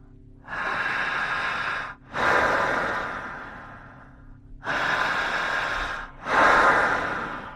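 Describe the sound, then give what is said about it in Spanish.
Forceful deep inhalations drawn into the diaphragm and chest during a guided breathing exercise for reaching a deep hypnotic state, four loud, airy rushes of breath in two close pairs, each lasting over a second and tapering off, with no talking. “Jalando el aire. Fuerte.”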